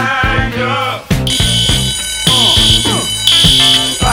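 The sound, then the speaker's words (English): A fire alarm rings with a shrill, steady high-pitched tone that swells louder in repeated bursts, mixed with lower wavering tonal sounds underneath. “Is this really a fire drill?”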